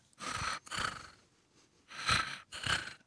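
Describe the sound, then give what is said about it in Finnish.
A person imitates a cat's purr as it breathes in and out, an inhaled purr and an exhaled purr, with breathy, rattling breaths: four bursts in two pairs, each with a rough, fluttering low rumble under a hissy airflow. “Se voi olla vähän erilainen se sisään kehräys, hengityskehräys ja sitten ulos hengityskehräys.”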